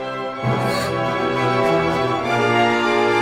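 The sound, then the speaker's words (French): A full orchestra plays loudly and steadily, with bold brass lines standing out over sustained strings, building a rich, dramatic wall of sound with no voices. “Les cuivres, les cuivres sont très présents.”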